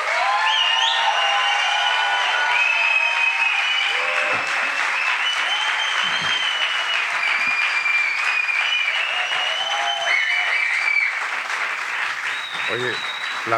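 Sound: theatre audience applause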